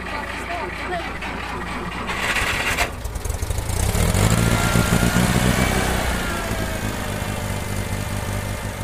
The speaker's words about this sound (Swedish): du kör ju en, en traktor utan hytt. Är det inte kallt idag nu när det är minusgrader?